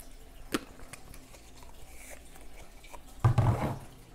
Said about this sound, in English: I'm going to drink some water.